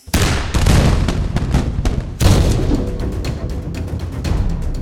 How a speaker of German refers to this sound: Auch wenn er sie nicht sehen konnte, so wusste er, dass die Kanonenkugeln durch den Äther auf das Schiff der Piraten zurasten.